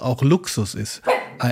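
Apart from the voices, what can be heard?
dog barking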